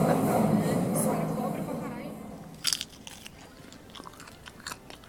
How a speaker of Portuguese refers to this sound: E mais uma, duas, tantas pipocas, uma a uma, recolhida do saquinho rosa brilhante, em intervalos cronometrados, perfeitamente espaçados.